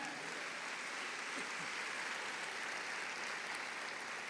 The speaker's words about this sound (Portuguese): Será que você pode aplaudir Jesus por todo mundo que está online com a gente?